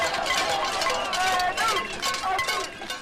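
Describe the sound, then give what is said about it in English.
A crowd of protesters outdoors keeps up a steady, overlapping metallic clatter of pots and pans being banged in a casserolade protest, with shouting voices mixed into the dense, continuous din. “So these are protesters banging on pots and pans.”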